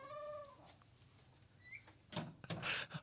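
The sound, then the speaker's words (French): A door is handled: a brief high tonal whine opens the moment, then a cluster of sharp knocks and rattles as it swings open and clacks shut, with no talking. “coupe les bouts de bruit de porte qui ouvraient puis qui fermaient.”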